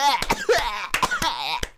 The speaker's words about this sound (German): Oh, Alter, jetzt muss ich niesen.